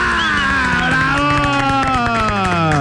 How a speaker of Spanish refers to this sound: Un aplauso para Chuy Lizárraga.